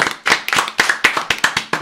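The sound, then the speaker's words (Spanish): Hand clapping from a few people, a quick run of sharp, bright claps at a steady, slightly uneven pace, fairly loud with no voices over it. “Se cuidan mucho y yo creo que nos merecemos un aplauso, ¿no?”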